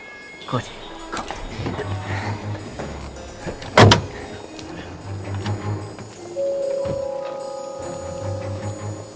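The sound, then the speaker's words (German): Several sharp car-door clunks and rustling movement as three people climb out of a car, with one loud slam near the middle and a low engine hum underneath; a voice speaks briefly. “Die drei Detektive kletterten aus dem Wagen, nickten einander kurz zu, dann trennten sich ihre Wege.”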